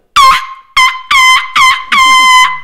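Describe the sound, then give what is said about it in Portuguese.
A voice imitates an ice cream vendor's horn with five loud, nasal, honking blasts in a quick uneven rhythm, the last one drawn out longest, with no other talk. “E aí o, o, o gordo lazarento lá, do sorveteiro, eu peguei a buzina, que é assim, ó.”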